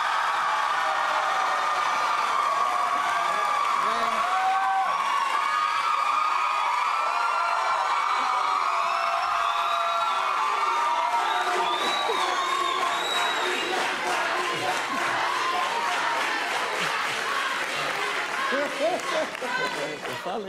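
A crowd cheers and claps steadily for about twenty seconds, with whoops and shouts rising over dense applause that stays loud throughout, as the audience votes by applause for the winner of a comedy joke contest.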